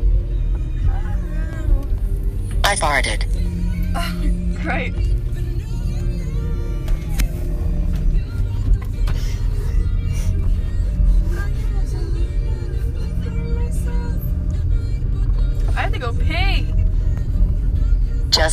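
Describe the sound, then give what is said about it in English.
A car's low engine drone rumbles steadily, filling the whole stretch as it approaches and goes by, with faint voices and brief higher sounds over the top. “Is this another car coming?”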